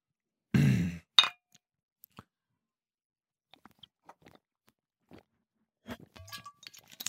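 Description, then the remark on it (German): Glasses clink together in a final toast: a thump of handling, a bright ringing clink, scattered small taps, then a few more light chimes near the end, with no talking. “Dann stoßen wir jetzt noch ein letztes Mal an.”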